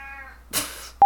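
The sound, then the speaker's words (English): A big cat being handled lets out a brief, drawn-out meow that trails off, followed by a breathy, noisy rustle and an abrupt loud blip right at the end. Fairly quiet overall. “You can really hurt a kitty by picking a big cat up by her scruff.”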